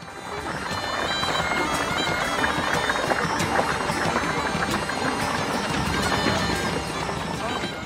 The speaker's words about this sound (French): des ménestrels payés par la ville pour jouer des instruments à vent et des percussions, des trompettes à coulisses, des chalmis et des tambourins comme ici.